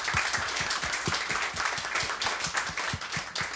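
A crowd applauds steadily after a reading of a written text, many hands clapping in a dense, continuous patter of crisp claps with no voices over it, holding an even loudness throughout.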